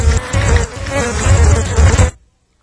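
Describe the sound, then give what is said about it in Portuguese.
A dense swarm of bees buzzes loudly and continuously for about two seconds, a thick droning hum played from a sound-effects record, cutting off abruptly into silence. “Por favor, Tene, cancele esse disco de efeito de abelhas.”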